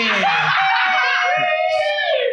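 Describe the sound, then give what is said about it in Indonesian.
A loud, high-pitched voice shrieks continuously in the background for a couple of seconds, a sustained wailing scream with a slightly laugh-like wobble, with no words spoken. “ada suara setan di belakang. Oke. Okay. Kamu ya teriak-teriak aja jadi backsound.”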